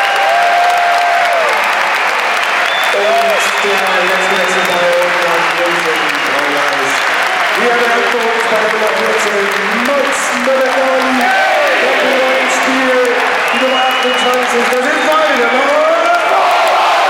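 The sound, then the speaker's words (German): Steady, dense applause from a large crowd at a football match, given to a player, continuous and loud for the whole stretch, with a mass of voices murmuring and calling underneath the clapping. “Das ist dein Applaus,”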